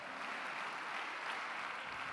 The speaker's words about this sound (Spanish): Apláudale pues si lo va a hacer, déle dele ese aplauso al Señor con todo su corazón.